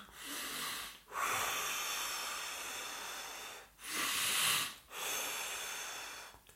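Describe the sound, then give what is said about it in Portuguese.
Slow, deep breaths taken as a breathing exercise with no talking: two full in-and-out cycles, each a loud airy rush separated by short pauses, the long exhales drawn out and hissing. “Vamos terminar o episódio antes que as máquinas comecem a trabalhar e vamos respirar fundo.”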